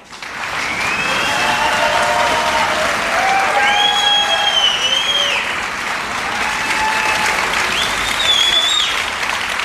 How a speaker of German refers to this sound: Ähm, deswegen einmal mit Füßen, Händen, das heißt jetzt mal das Geschenk runterlegen, liegt schon, sehr gut. Äh, mit Füßen, Händen, mit allem, was geht, mal äh, tosenden Applaus machen für äh, meine Berufsehefrau, meine bessere Hälfte,